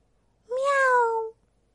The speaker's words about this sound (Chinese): 小猫又叫了